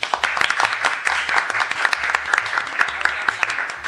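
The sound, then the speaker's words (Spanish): Loud audience applause welcoming Ofelia Fernández, a dense continuous wash of many hands clapping with sharp individual claps popping out, sustained steadily for the whole stretch. “voy a pedir un aplauso muy fuerte, eh, un aplauso que las manos eh, lleguen a sangrarse, ¿sí?”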